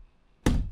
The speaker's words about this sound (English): Oh shit! You're knocking my phone over.